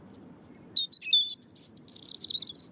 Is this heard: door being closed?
no